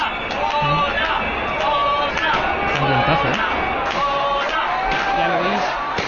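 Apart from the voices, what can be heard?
crowd cheering and applause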